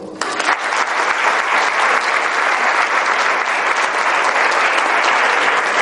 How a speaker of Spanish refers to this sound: Y se utilizan esos aplausos dirigidos, esos aplausos que nos sincronizan y nos igualan. ¿Os habéis dado cuenta que cuando aplaudimos, aplaudimos a un mismo ritmo todos? Probémoslo de nuevo, por favor.